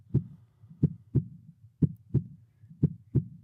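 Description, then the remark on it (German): A slow, steady human heartbeat at exactly 60 beats per minute, the heartbeat of an average person, each beat a dull, low lub-dub pair of thumps, clear with no voices. “So jedenfalls kannst du jetzt mal vergleichen, so klingt das Herz des Durchschnittsbürgers.”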